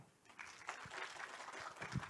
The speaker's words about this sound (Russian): И чтобы не, не тратить ваше время и не занимать микрофон, я с большим удовольствием передам слово нашему сегодняшнему гостю, э, режиссеру фильма и, и ученому Алексею Вакрышеву под ваши аплодисменты.